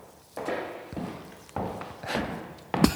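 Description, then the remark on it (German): A caretaker's slow, heavy footsteps, roughly three or four deliberate thudding steps at an unhurried, even pace, each with a broad scuffing attack, moderately loud with no talking. “Das ist doch so ein typischer Hausmeisterschritt, oder?”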